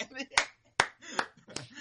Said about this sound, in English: Yoda just giving a little clap. Yeah, this is a golf clap, This golf clap. That's probably what the audience oh, are doing more than the characters